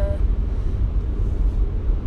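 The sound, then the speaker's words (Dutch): Steady low rumble of a car's interior while driving, a constant muffled roar dominated by deep road and engine noise with no clear voices. “of het een beetje te beluisteren was met alle ruis eh, die de auto met zich meebrengt.”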